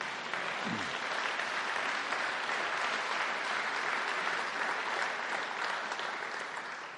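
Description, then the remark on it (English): A large church audience claps steadily and loudly for several seconds as a hand of praise to God, a dense, continuous wash of applause from many hands with no voices rising above it. “Can we give God a hand of praise?”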